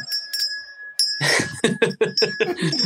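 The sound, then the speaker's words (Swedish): Jingle bells ring in a bright, shimmering cluster of high metallic tones, starting with a few light shakes and then shaking steadily in a quick, rhythmic pattern, fairly loud, with no talking. “Som vi hör så är det lite, lite bjällror här.”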